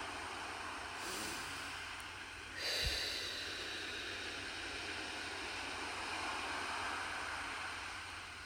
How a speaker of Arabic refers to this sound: خلي صوت الموج ياخدنا ويجيبنا بكل أمان نحن وقاعدين على الشط